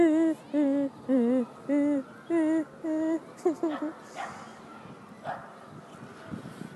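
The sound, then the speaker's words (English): Dogs yip and whimper in a run of six short, high-pitched, wavering cries at a steady rhythm, then trail off into scattered softer whines and rustling noise. “Let's just say the dogs don't like it. They don't even like me talking about it.”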